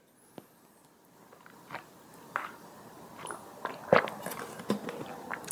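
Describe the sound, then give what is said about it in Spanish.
Someone drinks a glass of water, with a string of soft gulps, wet mouth clicks and faint swallowing noises spread irregularly over a few quiet seconds, no talking. “Si me permiten, me voy a tomar un poco de agua”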